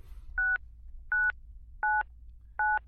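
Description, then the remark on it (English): Four touch-tone dialing beeps in a steady rhythm, each a clear two-note electronic tone, pressed one after another over a faint low hum with no voices. “yeah so uh, should i call i mean it's your expert okay I, will call him up”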